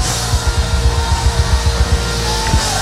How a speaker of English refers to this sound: give him a shout of praise. Come on, let's do it like the Bible says and shout unto God with a voice of triumph